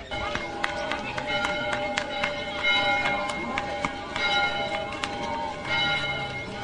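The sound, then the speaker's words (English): Church bells at the Rātana pā ring out as the cue for the start of the church service, in a busy, overlapping peal, repeated strikes blending into sustained ringing tones, with a faint murmur of people and outdoor bustle underneath. “The sound of the bells at the Rātana pā are the cue for the start of the church service, but Matt McCarten says the bells are also tolling for the Labour Party.”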